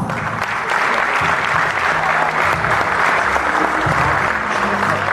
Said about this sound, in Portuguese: Uma salva de palmas.